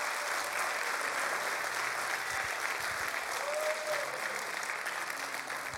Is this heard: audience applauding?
yes